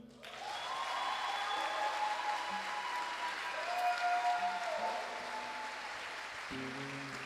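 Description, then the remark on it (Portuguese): A crowd applauds steadily for about seven seconds, a dense, even wash of clapping that starts abruptly and stays loud throughout, with faint whistles or tones riding above it, given for a woman, a worship minister, on her birthday. “Pessoal, também como eu, ela também faz aniversário e eu gostaria que vocês dessem uma grande salva de palmas para ela.”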